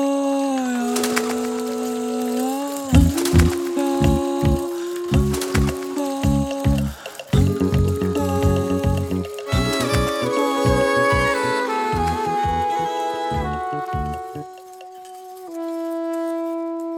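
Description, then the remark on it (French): A short instrumental jingle, the official jingle of a sound-week festival: bright melodic tones over a busy rhythm of punchy, woody-sounding percussive knocks, building through the middle and settling into a sustained closing note. No voices. “Le jingle officiel de la semaine du son, on, nous y sommes aujourd'hui pour son lancement”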